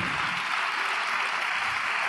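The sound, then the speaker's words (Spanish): An audience applauds God steadily, a dense, continuous wash of many hands clapping at once, loud and sustained throughout with no voices standing out. “Bueno, dale ese aplauso más fuerte a Dios.”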